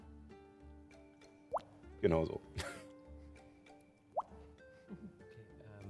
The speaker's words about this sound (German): Ähm, du schaust nach unten und hörst ab und an, allerdings widerhallend, äh, so als würde die Röhre nicht einfach nur gerade nach unten gehen, sondern irgendwelche Biegungen machen und sowas, hörst du vereinzeltes Wasserplätschern.